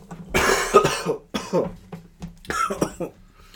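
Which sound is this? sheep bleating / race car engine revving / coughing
coughing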